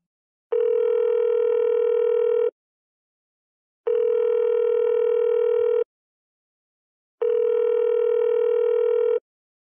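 A telephone line tone while placing a call to an interview guest: three steady, buzzy tones about two seconds each, separated by even silent pauses, loud and clear with no voices.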